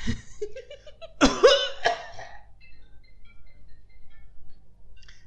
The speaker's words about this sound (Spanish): Mejor ponte a toser.